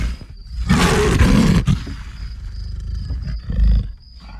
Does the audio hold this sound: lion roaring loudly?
yes